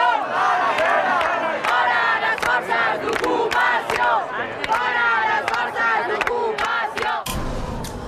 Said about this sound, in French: Les slogans qu'on entend à la fin sont euh, des appels à mettre dehors les forces d'occupation, les fascistes et à retrouver la liberté.